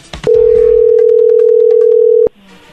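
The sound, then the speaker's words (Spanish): A loud, steady telephone dial tone drones at a low, even pitch for about two seconds, with faint ticking clicks over it as someone dials a phone number, then cuts off abruptly to near silence. “Ahí está marcando, no hagan ruido.”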